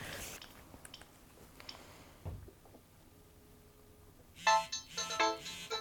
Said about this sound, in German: Ja, das ist mein Klingelton für heute Nacht. Genau.